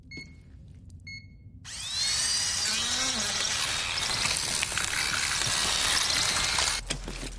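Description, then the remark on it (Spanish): A few soft electronic beeps, then a loud, high-pitched surgical drill held in an operating room whirs up with a rising whine and runs steadily for about five seconds before cutting off. “En el quirófano, el padre sostiene un taladro.”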